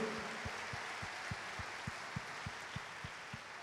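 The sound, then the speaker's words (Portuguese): An audience applauds the Lord in a dense, steady wash of many hands clapping at a fairly low level, with a regular low thump pulsing underneath about three times a second. No one speaks. “Você gostaria de aplaudir ao Senhor?”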